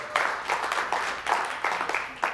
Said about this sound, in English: You can, you can clap if you want to. I think it's a big deal.